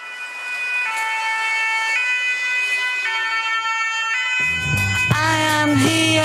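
An old-style two-tone emergency siren alternates steadily between high and low pitches, loud, before music with a singing voice comes in over it near the end.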